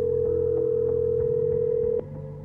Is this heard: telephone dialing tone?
yes